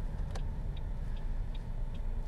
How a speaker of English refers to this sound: Um, well, my car's just making all kinds of noise this morning. Hopefully, the sound of the hot air blowing in my car isn't too distracting.